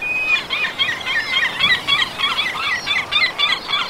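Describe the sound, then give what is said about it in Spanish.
A yellow-legged gull colony calling, with many overlapping squealing cries repeating in quick, uneven bursts, fairly loud and continuous throughout, without any talking. “En las CIES habita la mayor colonia de gaviotas patiamarillas de toda Europa.”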